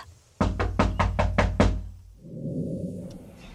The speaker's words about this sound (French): C'est alors que son visage s'est illuminé et s'est levé et est allé cogner de nouveau à la porte du magasin général.